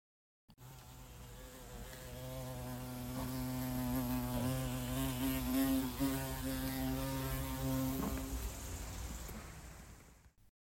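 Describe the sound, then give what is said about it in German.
An Asian mortar bee buzzes steadily as it flies in, a continuous droning hum that swells louder in the middle and fades out near the end, with no voices. “Das ist ein richtiges Summen”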